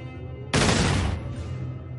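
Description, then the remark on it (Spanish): A single loud pistol gunshot cracks out abruptly, a sharp blast whose echo rolls away and fades over the next second against a low steady background hum. “Aplicó el cañón de su arma a la cabeza de un capitán de tanque que gritaba, con medio cuerpo quemado,”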